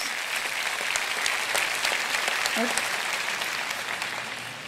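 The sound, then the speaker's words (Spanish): An audience at a religious service claps steadily, a dense wash of many hands beating at once that holds at an even, fairly loud level before easing off slightly at the end. “Aplaudieron.”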